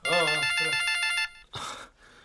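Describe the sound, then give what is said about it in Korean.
A phone ringtone for an incoming call plays a bright, pulsing electronic melody for about a second, fairly loud, then cuts off and a brief, breathy burst of sound follows. “잠, 잠깐 잠깐 잠깐 잠깐 저 나 전화 좀 받고.”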